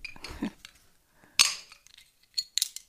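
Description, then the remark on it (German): A crown-capped glass bottle of Evian still water being opened: some soft fumbling, a sharp metallic snap as the cap comes off, then a few bright clinks of the loose cap and glass, with no fizz. “Wow, also zum ersten Mal ein Kronkorken?”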